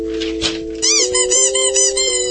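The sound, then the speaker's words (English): Two squeaky dog toys shaped like boots, from PetSmart, honk and squeal back and forth, one steady tone joined by a rapid series of rising, warbling squeaks, loud with no talking. “It's dueling squeaky toys.”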